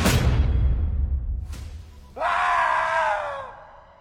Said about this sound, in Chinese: 凄厉的惨叫声在大殿里回荡。就连牧明听到了，也感到毛骨悚然。